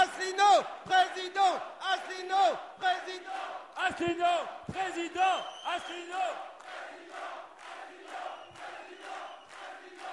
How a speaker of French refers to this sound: Allez, je veux vous entendre encore. Un tonnerre d'applaudissements pour Monsieur François Asselineau